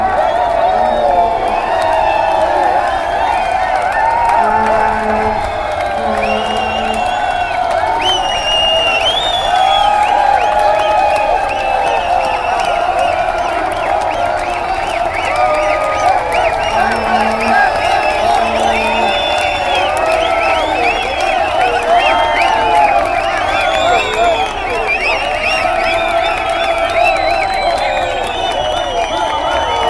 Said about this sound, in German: Es wird geklatscht, gejubelt und für 15 Minuten gehört die Laxenburger Straße in ihrer gesamten Breite den jubelnden Protestierenden.